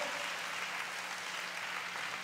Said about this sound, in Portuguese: Levanta as mãos e aplauda a Ele de toda a tua vida, de todo o teu coração.